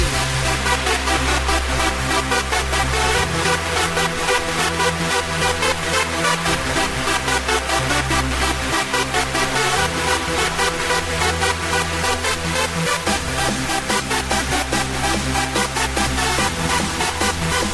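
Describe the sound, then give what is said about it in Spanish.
An upbeat 2002 dance track with a female singer plays loud and steady throughout, driven by a pounding, regular beat and a deep bassline, with no talking over it. “Pues también canta aquí.”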